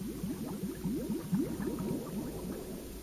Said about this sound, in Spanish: Una última burbuja sale de tu pulmón.